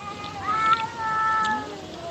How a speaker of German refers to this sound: Hör mal bitte, was hier los ist. Nebenan jaulen irgendwelche Katzen.